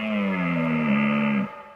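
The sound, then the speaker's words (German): A red deer stag roaring during the rut lets out a single deep, drawn-out roar, loud, holding a steady rough tone for over a second before stopping abruptly. No one speaks. “Und dann fangen die wirklich unablässig an zu röhren.”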